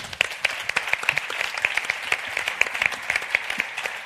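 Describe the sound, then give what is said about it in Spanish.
An audience bursts into steady applause for the show's second contributor of the night, a dense patter of many hands clapping at once, fairly loud and sustained for several seconds with no one speaking over it. “Un aplauso para él.”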